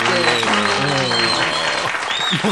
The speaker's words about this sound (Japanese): これからだからすごいな思うた人はもう必ずもう立って拍手しようかな。全部。スタンディングオベーション。